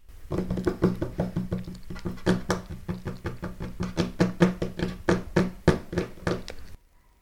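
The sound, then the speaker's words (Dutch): Fingers drum rapidly on a tabletop, a steady patter of many quick taps imitating the sound of soft rain, continuing evenly for several seconds before stopping abruptly. No voices. “Tik maar met al je vingers op de tafel of op de grond.”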